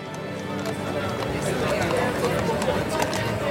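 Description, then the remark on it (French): Dozens of horse-drawn carriages clatter along at nightfall, around 10 pm, dropping off a stream of guests in front of a residence, with a steady clip-clop of hooves mixed into a busy, continuous murmur of crowd chatter and bustling street noise. “des dizaines de voitures à cheval commencent à déverser un flot d'invités devant la résidence des Vanderbilt”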